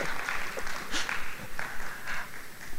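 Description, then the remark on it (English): An audience applauds the speaker's wife steadily for about three seconds, a dense, even patter of many hands clapping with small swells in loudness and no voices over it. “Clap for her. Clap for her.”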